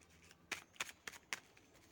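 Tarot cards being shuffled and laid out: four crisp, papery riffling bursts in quick succession, roughly evenly spaced, over a quiet background with no talking.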